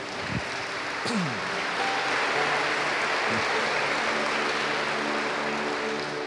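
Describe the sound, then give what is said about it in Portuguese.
An audience applauds God steadily for several seconds, a dense, continuous wash of many hands clapping at an even loudness, with a few faint tonal sounds and voices mixed underneath. “Então vamos aplaudir a Ele por isso, uai.”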